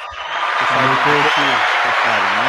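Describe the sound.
Steady audience applause fills the whole clip as a dense, even wash of clapping, with a man's voice talking over it partway through.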